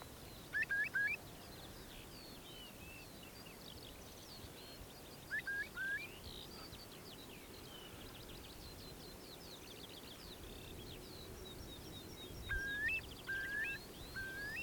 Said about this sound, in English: There's a curlew.